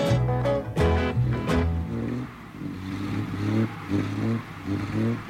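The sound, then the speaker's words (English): A powerful Ferrari sports car engine revs hard in a few sharp bursts, then settles into a loud, steady roar with shifting pitch, with no voices. “Yeah, there goes the Ferrari.”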